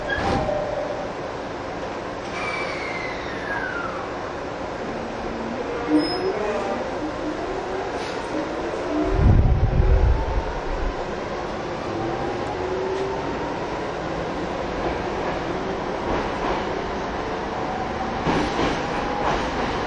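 A TWR 70-000 series Saikyō Line rapid commuter train runs steadily between Shin-Kiba and Akabane, with a continuous rumble of wheels on rails and rising and falling motor whine, plus a brief heavy thump partway through and no talking.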